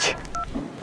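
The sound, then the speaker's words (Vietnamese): A short electronic voicemail beep at the end of a phone's voicemail greeting, one brief steady two-pitch tone lasting about a tenth of a second, following a soft noisy rustle, with no speech. “xin lỗi tôi không thể nghe điện thoại trong lúc này làm ơn để lại tin nhắn sau tiếng beep tôi sẽ gọi lại ngay beep”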